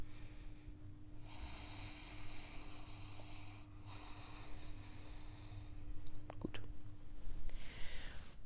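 Soft, airy hissing breaths through the nose with the tongue held to the roof of the mouth, a breathing exercise: two drawn-out strokes in a row followed by a few small clicks and another faint breath, quiet, with no talking.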